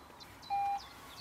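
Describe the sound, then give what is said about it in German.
A smart doorbell at the entrance door of a networked home rings with one short, steady electronic beep, clear, while faint bird chirps twitter in the background. No one speaks. “Also du kannst ja mal klingeln jetzt.”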